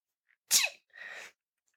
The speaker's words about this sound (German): Gesundheit